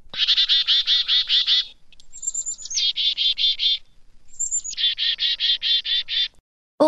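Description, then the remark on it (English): A chickadee gives three bursts of rapid, buzzy, repeated alarm notes, each of the later two opened by a high, thin whistle. The scolding calls sound loud, with no talking. “When chickadees see a goshawk, owl, or some other winged predator, the birds issue an alarm call.”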